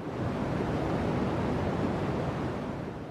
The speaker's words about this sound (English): Um, but really, I think the the deep throb of cosmic background radiation.